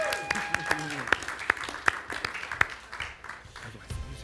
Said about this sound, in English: Oh, and first of all, if you decided that today, let's celebrate. Can we clap for you guys?